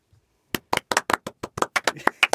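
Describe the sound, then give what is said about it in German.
A brief round of hand clapping: about fifteen sharp, crisp claps in a quick, slightly uneven rhythm, starting after a moment of silence and continuing steadily, with no voices. “Uh. Applaus. Super.”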